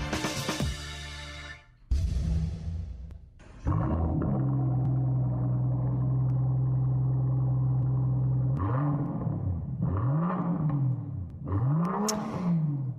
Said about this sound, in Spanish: El sonido es el sonido de un Rolls Royce, de estos autos este, pues lujosísimos